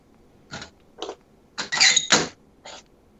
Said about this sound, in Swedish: Nej, men jag ska stänga fönstret.